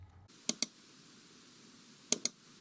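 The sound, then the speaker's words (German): Two quick pairs of sharp computer mouse clicks, the first pair near the start and the second about a second and a half later, with quiet in between and no talking. “Den Mausklick.”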